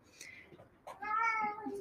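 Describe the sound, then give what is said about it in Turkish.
A cat lets out one drawn-out, slightly falling meow, preceded by a few faint scuffs and short bursts of noise as it kicks at the balcony door wanting to go out onto the balcony. “Şu an kedim balkona çıkmak istiyor ve kapıyı tekmeleyince kapı açılıyor için bir şey oldu ama neyse.”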